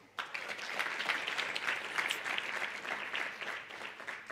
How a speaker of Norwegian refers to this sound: Gi dem en liten applaus.